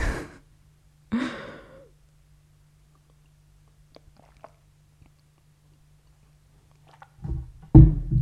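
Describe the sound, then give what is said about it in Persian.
A breathy slurp of hot tea, followed by a long exhale, then quiet small mouth and swallowing sounds before another audible breath and sip near the end. “پس بذارید یه قلب چای بخورم”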